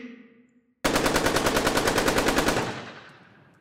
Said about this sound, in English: Automatic weapons were firing.